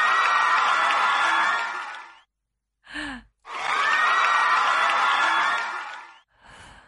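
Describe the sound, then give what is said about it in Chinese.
A crowd claps and cheers loudly to encourage a nervous guest, in two long, dense bursts, each lasting a couple of seconds. A short gap separates them, with brief vocal sounds in between and again at the end. “好，来，我们掌声鼓励。”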